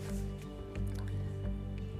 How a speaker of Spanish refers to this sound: Con este mentado crush, déjame tomar un poquito de agua porque me estoy deshidratando. Mm, qué rico.